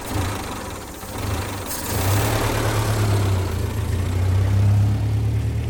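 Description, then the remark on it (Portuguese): A car engine runs steadily with a low, droning hum that grows slightly louder and fuller partway through, as if revving or pulling away, as the car drives through Lisbon. No voices. “Já em desespero, bateu com a porta do automóvel e percorreu Lisboa.”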